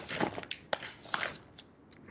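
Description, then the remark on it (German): Someone chews a crunchy roasted pea snack (Knuspererbsen), with sharp, irregular crunches breaking out over about two seconds and no talking. “Es gibt so einen Erbsen. Ich habe Knuspererbsen. Crunchy Peas.”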